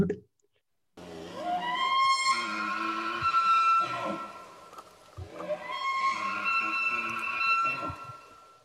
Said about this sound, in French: Ouais, c'est pas le cerf. C'est un élan. C'est un élan, ah. Voilà, qui lui aussi fait de drôles de bruit, donc.